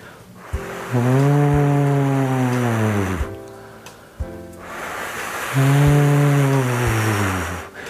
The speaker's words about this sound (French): Maintenant, pour continuer, je vous propose que nous rajoutions un hibou dans ce son, dans la forêt. Mais le bruit du vent ne disparaîtra pas. Écoutez.